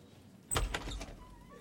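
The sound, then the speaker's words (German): A door to the foyer of a law firm opens: a sharp latch click and a brief clatter of the handle and frame, with a faint squeak, then fading into quiet. “öffnet die Tür und blickt durch seine modische rote Brille ins Foyer.”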